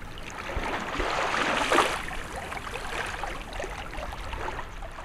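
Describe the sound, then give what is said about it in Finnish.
Soft water lapping on a rocky shore of an exceptionally calm sea on a warm August day, a steady watery wash that swells briefly near the start and then settles into a quiet, continuous splashing murmur with no voices. “On lämmin elokuun päivä ja meri on juuri nyt niin poikkeuksellisen tyyni, että laineiden liplatus kuuluu vain aivan rantaan, kun istun niemen pohjoisessa kärjessä – laakealla silokalliolla, jota jääkausi on muovannut”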